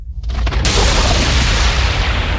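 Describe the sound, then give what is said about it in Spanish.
A loud thunder clap sound effect: a low rumble builds, then splits into a sharp crack that rolls on as a heavy, sustained roar with no voices. “necesitamos un trueno aquí.”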